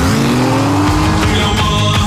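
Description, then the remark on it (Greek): A car engine roars loudly while tires squeal in a sharp, sustained screech as the driver swerves hard at speed in a maneuver to escape pursuers, with no talking. “Θα κάνουμε έναν ελιγμό να τους ξεφύγουμε. Και η φόρμουλα που μας κυνηγάει... Κάτσε και θα δεις.”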